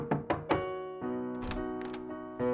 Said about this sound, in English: there was a knock on Taylor's door